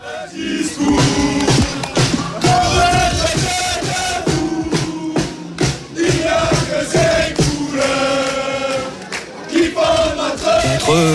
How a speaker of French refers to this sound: 10 000 habitants, 100 spectateurs en moyenne pour leur match de championnat et 5 fois plus, 500 supporters jeudi soir au dernier entraînement de l'équipe. On vous y emmène, écoute.